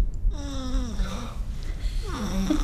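human body sound, baby snoring

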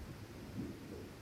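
nature, thunder rumbling

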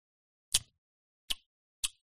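food or drink, sipping scotch

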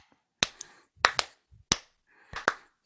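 human body sound, hand claps

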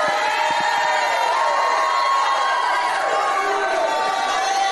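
crowd, crowd shouting and cheering

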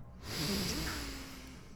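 human body sound, a deep breath

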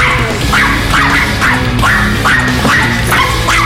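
animal, small dog barking

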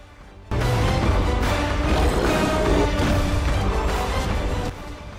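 signal or alarm, video game music

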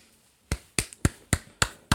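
human body sound, self-applause clapping

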